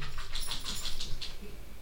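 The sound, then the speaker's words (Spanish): A dog scratches itself in the background, a quick run of about six rhythmic scratching strokes with a light metallic jingle, then fading into low room noise. “perdona si estáis escuchando al perro de fondo rascarse”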